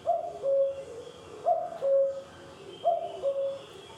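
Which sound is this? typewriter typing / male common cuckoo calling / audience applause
male common cuckoo calling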